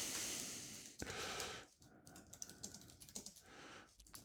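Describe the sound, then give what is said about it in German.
Soft, quiet typing on a computer keyboard, with a quick irregular run of light key clicks against a faint background hiss and no one speaking. “ich versuche so leise wie möglich zu tippen.”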